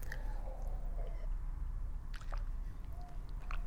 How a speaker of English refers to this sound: i'm just taking a sip of water here